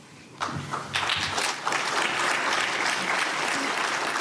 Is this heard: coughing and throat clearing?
no